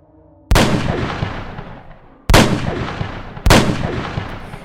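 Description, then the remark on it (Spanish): Three loud gunshots from a .22 pistol, spaced unevenly: one shot, a pause of nearly two seconds, then two more in quicker succession, each with a long ringing decay. “Richard disparó con la 22 y remató a Maxon.”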